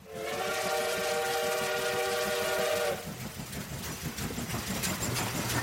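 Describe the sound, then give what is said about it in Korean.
A train whistle blows loudly and steadily for about three seconds, then gives way to the continuous rumble and clatter of a train rolling along the tracks, loud, with no voices. It is a Gyeongbu Line train from Seoul Station bound for Daejeon, at dawn, in 1905. “그리고 대전을 향하는 경부선 기차에 완력으로 태웠다.”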